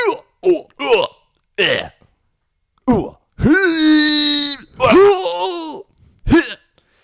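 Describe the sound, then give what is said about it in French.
A voice imitates fighting sounds: a quick run of short grunts, then a long strained groan, another strained cry and a final grunt, loud with no words. “peut aussi lui faire des bruits de combat.”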